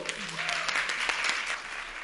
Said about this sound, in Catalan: Avui és un capítol molt especial per com, perquè, com estareu sentint, hi ha públic en directe, que acaben de fer soroll perquè sapigueu que no són de broma i que ens ho estem inventant.